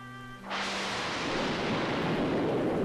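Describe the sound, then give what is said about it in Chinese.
A sudden, loud burst of rumbling thunder breaks in after a brief soft tone and keeps rolling steadily, a dense, sustained roar with heavy low rumble throughout. “轰隆隆，轰隆隆，雷声越来越响，震得整个房间都摇晃了起来。”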